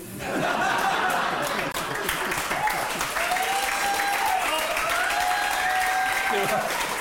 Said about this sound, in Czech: A Češi tleskají